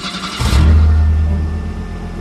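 A car engine cranks and fires up, then settles into a loud, steady low rumble as it revs, with no voices.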